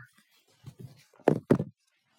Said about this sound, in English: Three, four, knock at the door.